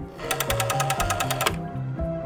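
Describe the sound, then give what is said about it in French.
A rotary telephone dial spinning back, giving a quick, even run of about a dozen sharp clicks over a low steady hum, then stopping; a faint tone follows. “Alors composer un numéro prenait plusieurs secondes.”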